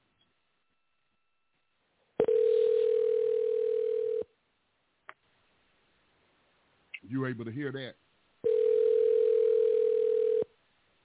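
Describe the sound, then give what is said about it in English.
Two long, steady telephone ringback tones of an outgoing call to a guest, each about two seconds, separated by a pause of several seconds, sounding clear through a phone line. A man briefly speaks between the rings. “I'm going to try to get guest on the line and should be calling him now.”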